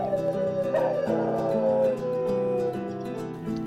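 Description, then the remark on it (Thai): Several wolves howl together at night in long, mournful, wavering tones, their voices overlapping steadily for a few seconds, with no talking. “คืนนั้นพวกเขาฮอนอย่างเศร้าส้อยด้วยความเสียใจที่เจคหายไปอย่างลึกลับ”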